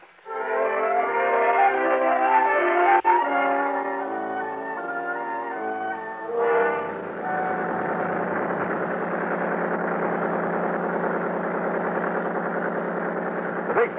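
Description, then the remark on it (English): A motorboat engine runs steadily as the boat travels up a lake at about 30 knots on a clear, warm day, starting as a tonal, humming drone before shifting into a rougher, constant roar that carries on to the end. “pulled us up the lake at an easy 30 knots.”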